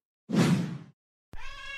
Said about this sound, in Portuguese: Será que tem como adestrar gatinho? Isso sempre acontece na gravação, não aguento mais!